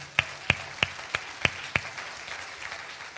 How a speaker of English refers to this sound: everyone clap. Come on, everyone, just get it over with.